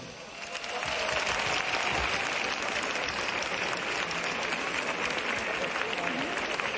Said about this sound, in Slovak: A dokonca sú medzi nimi aj zahraniční hostia. Tí síce kričať asi nebudú, ale my ich môžeme pozdraviť potleskom.